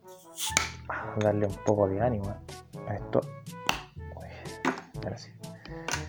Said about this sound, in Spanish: Estoy tan pobre que no tengo ni siquiera destapador en la casa, así que tengo que destapar con el encendedor.